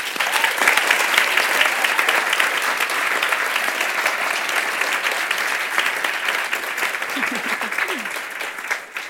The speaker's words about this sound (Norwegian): Gi alle jentene en varm applaus.